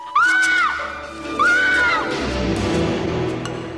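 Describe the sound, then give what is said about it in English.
A woman lets out two loud, high-pitched screams, each about half a second long, separated by a short pause, over a murky background of low rumbling noise, as she notices a body lying in an alley. “As she screams, a man emerges from the shadows n- near the body, seems to be mm.”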